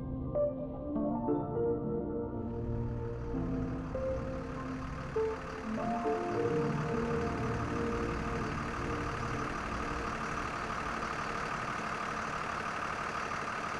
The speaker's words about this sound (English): The engine started, and the bus's rubber tires spit out clouds of dust behind them.